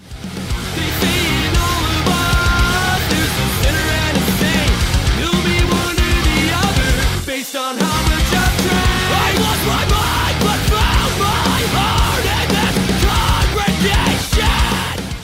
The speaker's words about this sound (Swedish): Och eh, för mig var det här sydstats metalcore. Eh, och inte alls så djup och melodisk som tidigare låtar, i alla fall från förra skivan. Eh, den är mycket, mycket köttigare,